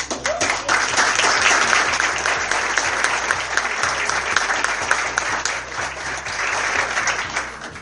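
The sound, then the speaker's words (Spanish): Sustained audience applause for the jury at the third Platense cinema festival, held at the Colegio de Martilleros, fills the whole stretch, a dense, steady wash of many hands clapping with no voices standing out. “El resto de los jurados no pudieron venir, pero también les extendemos el aplauso.”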